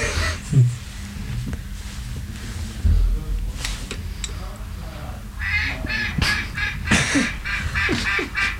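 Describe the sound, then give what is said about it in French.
A duck quacks in a series of harsh, nasal calls that grow busier toward the end, loud over a low rumbling background. “C'est quand même pas Radio Canard.”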